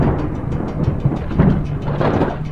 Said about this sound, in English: On that unnaturally humid and sunny afternoon, thunder ominously clapped from heavy storm clouds that loomed off in the distance.